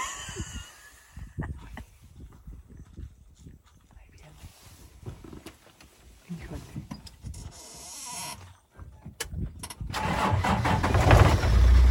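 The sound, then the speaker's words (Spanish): An engine starts up with a broad, rising roar that grows loud and rumbling toward the end, following a stretch of scattered talking by several people. “ah, siempre sí lo prendí”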